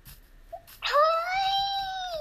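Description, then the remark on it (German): A single drawn-out, high-pitched whine from a video game wolf, starting abruptly and holding a steady tone with a slight downward slide for over a second, with faint low chatter underneath. “Oh, Hundis. Hier sind Wolfis.”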